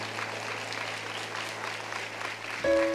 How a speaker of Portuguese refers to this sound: Louvado seja o Senhor. Aplauda mais forte.